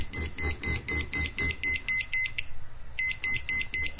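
A liquid level indicator on a cup gives rapid, evenly spaced high beeps with a low buzzing vibration pulsing in sync, pauses for about a second, then starts up again, fairly loud.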